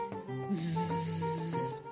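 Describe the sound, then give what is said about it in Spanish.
A person's voice makes a steady, buzzing hum, mimicking a fly, with a breathy hiss layered over it. It holds continuously for nearly two seconds, fairly loud. “Madre que era una mosca al final, ¿eh?”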